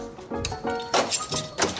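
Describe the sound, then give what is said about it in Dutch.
A door being pushed shut: a series of dull wooden thunks and knocks over about two seconds, with a heavier thud near the middle and a faint metallic click. “Écoutez, vous, vous, refermez bien la porte.”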